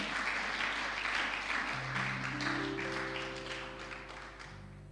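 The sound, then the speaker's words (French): A crowd claps and cheers steadily, acclaiming the Lord, while sustained organ or keyboard tones enter and build beneath the noise, the applause gradually tapering off near the end. “Acclame le roi des rois. Acclame le Seigneur.”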